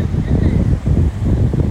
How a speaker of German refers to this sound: dass ich hier am Strand spazieren gehe auf Lanzarote.